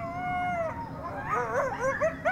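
Coyotes yip and bark at each other in a rapid, overlapping chorus, starting with a long wavering howl that breaks into sharp, rising yips, loud with no talking.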